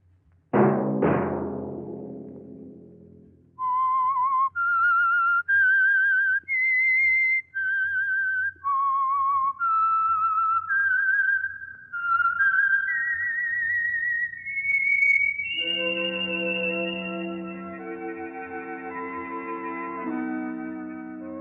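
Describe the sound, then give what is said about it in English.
A lone, clear whistled melody of distinct held notes, the signal theme of a weekly Sunday-night radio program, rises and falls, opening after a sharp orchestral stinger and giving way to a sustained swell of orchestra at the end. “Let that whistle be your signal for the Signal Oil program, The Whistler, each Sunday night at the same time.”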